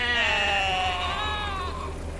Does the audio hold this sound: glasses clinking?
no